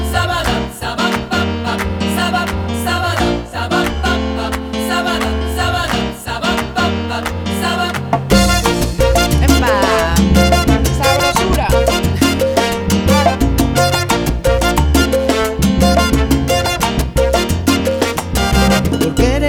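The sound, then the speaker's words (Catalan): A loud, full-band salsa cover version of a pop song by the pop duo a pop duo, from their album of salsa covers, plays continuously, with busy percussion and brass-like stabs, growing denser and brighter partway through. No one talks over it. “he descobert que tenen un disco de versions de salsa.”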